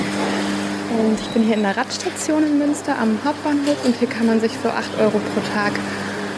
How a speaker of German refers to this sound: Was ihr hier hört, ist eine Fahrradwaschanlage. Habe ich auch noch nicht gesehen, aber in Münster gibt es das natürlich.